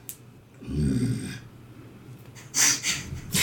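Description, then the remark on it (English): A person lets out a low, rumbling growl of frustration lasting about a second, at their choice of spells having no bonus actions, followed by a few sharp, breathy exhales or snorts. Fairly loud, with no words spoken. “Sorry, that is me growling at my choice of spells and the fact that I literally have none that are bonus actions.”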